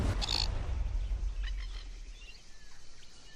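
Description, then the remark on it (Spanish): A glossy black cockatoo gives a short, harsh call, followed by a couple of fainter cries over a steady low outdoor rumble, with no one speaking. “Daniela Teixeira estudia a las cacatúas lustrosas, una de las aves más vulnerables de Australia.”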